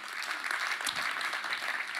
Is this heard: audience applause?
yes